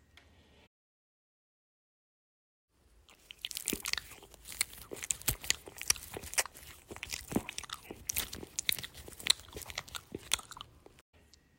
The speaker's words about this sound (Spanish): Y Dios la oyó, porque su hermana empezó a comer las hojas.